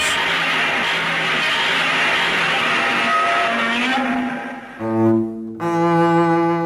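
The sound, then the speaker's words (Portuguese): A monster roar created by composer Akira Ifukube by rubbing a resin-coated leather glove along double bass strings: a long, harsh, grinding screech, then two shrill, strongly harmonic bellows separated by a brief gap. No talking. “Na realidade, Ifukube utilizou um contrabaixo e usou uma luva de couro revestida com resina para criar atrito. Então ele esfregou a luva nas cordas do contrabaixo para criar esse som.”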